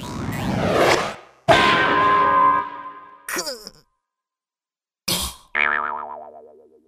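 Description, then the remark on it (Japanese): A run of cartoon sound effects as Pinocchio throws a wooden mallet that hits a cricket: a whooshing throw, a sharp wooden hit, then a springy, wobbling boing that rings out and fades, with a brief gap of silence between bursts. “そう言うとピノッキオは、そばにあった木槌を投げました。”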